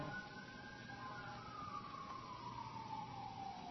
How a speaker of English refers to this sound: Boy, here come more sirens. There must be the end of the world going on out there.